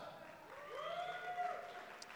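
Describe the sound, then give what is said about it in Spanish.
An audience cheers and shouts together to pick the best football player, a rising, sustained roar of voices over a wash of noise that could be clapping, fairly faint and steady throughout. “Con sus aplausos y gritos.”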